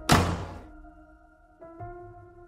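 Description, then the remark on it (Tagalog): A bedroom door slams shut with one loud, heavy thud that fades into a lingering resonant hum, followed by two softer bumps a moment later. No one speaks. “Punong-puno ako ng pasa sa mukha nang ibalibag ko ang pintuan ng kwarto ko.”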